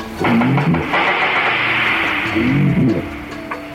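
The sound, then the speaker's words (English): Walrus knocks and taps recorded underwater: a rapid series of clicks over a dense rushing background, with low warbling tones sliding up and down. The sounds are loud, and no one speaks. “What's really interesting about walrus vocalizations is that they emit these knocks and taps in very specific sequences, and that these sequences are then repeated over and over, similar to the way a robin would sit up on a tree and sing its song”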